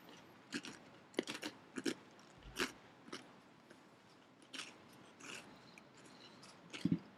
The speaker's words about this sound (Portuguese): Só terminar de mastigar. Uhum.